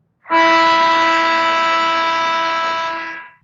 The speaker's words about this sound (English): Uh, I'm gonna play one more thing. I'll play the buzzer see if you can hear the buzzer.